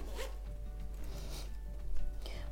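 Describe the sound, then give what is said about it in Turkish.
A zipper on a small, compact jewelry case is drawn open in a few quick rasping pulls, fairly quiet, with faint handling noise around it and no talking. “Şöyle fermuarlı ve içini açtığınızda”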